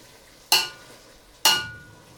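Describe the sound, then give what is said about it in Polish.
Two distinct strokes of a utensil gently stirring a goulash of tomatoes, vegetables and meat in a metal pot, each a bright scraping clink with a short fading tail, about a second apart. Clear, with no talking. “Zanim wrzucę do garnka pomidory, całość trzeba dokładnie przemieszać, gdyż po dorzuceniu pomidorów trzeba to już będzie robić bardzo delikatnie znalazły się w garnku i teraz delikatnie rozprowadzę tą resztą”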